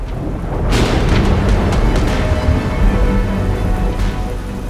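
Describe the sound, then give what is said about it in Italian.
A thunderstorm roars in the mountains outside a tent, with deep continuous rumbling and a broad hiss of rain and wind. The sound swells after the first second and stays loud throughout as the wind strains the tent's guy lines. No voices. “Fuori imperversa il temporale, il vento stringe i tiranti della tenda portandoli al limite.”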